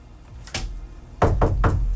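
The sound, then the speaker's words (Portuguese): Knocking on a door: one knock, a short pause, then three quick raps in a steady rhythm, fairly loud, with no voices. “está batendo a porta.”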